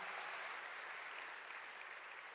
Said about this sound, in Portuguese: Pode dar um grande aplauso para Jesus, para Ele.